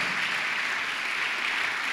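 An audience claps steadily in applause to the Lord during a sermon, a dense wash of many hands applauding together at an even, sustained level with no voices standing out.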